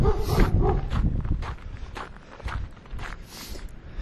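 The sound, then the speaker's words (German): A dog scuffles as it attacks the person recording, with quick pattering paw steps, brushing and snuffling noises in an irregular rhythm over about four seconds, and no talking. “Jetzt werde ich noch vom Hund attackiert.”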